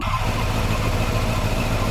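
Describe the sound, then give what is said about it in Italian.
In the racing game Furious Racing, a German sport motorcycle's engine idles with a steady, low rumbling drone, loud and continuous for the whole moment, with no talking. “Qua siamo in moto, quindi...”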